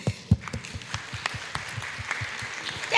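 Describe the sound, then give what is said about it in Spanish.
An audience applauds steadily for a few seconds, a dense patter of many hands clapping at moderate loudness, with a few sharper claps standing out and a brief voice near the end. The applause is given for Moses. “Vamos a darle un aplauso a Moisés.”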